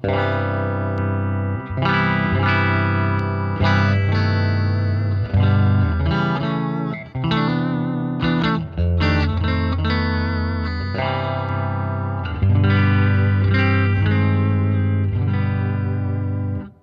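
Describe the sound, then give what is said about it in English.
A heavily overdriven electric guitar with a gold-top Venetian gold finish, with a small button engaged that adds more heat, plays loud, thick distorted chords and riffs with a boosted, saturated tone, ringing continuously with brief pauses and no talking. “But it also works on that, that little button, gives it a little bit more heat.”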